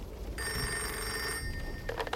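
An old-fashioned telephone bell rings in one sustained metallic burst lasting over a second, then a second ring begins, over a low background rumble.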